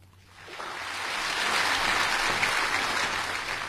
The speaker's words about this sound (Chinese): 唱的非常好啊，呃，要给你掌声。